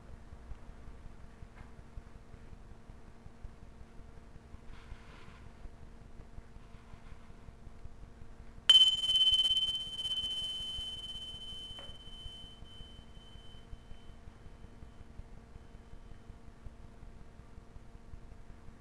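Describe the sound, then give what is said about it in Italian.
A single bright chime of small bells, sounded between spoken questions, rings out with a sharp attack, its high clear tone ringing on and slowly fading over a few seconds against a quiet, steady low hum. “E controllando lascia uscire domanda che ti offro è intervallata da un suono delle piccole campanelline.”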